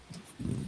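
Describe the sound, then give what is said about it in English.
The speaker's dog gives a brief, muffled bark, low-pitched and fairly faint, with a softer yelp just before it and no voices. “and that was my dog.”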